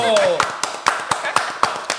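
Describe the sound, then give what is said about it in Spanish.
Steady, rhythmic hand clapping, about eight sharp claps in quick succession, with a brief vocal sound right at the start, applause celebrating reaching 60,100 subscribers. “Llegamos a 60,100 suscriptores, señores. un fuerte aplauso.”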